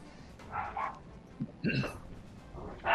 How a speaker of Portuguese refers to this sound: Opa, tem cachorro latindo aí.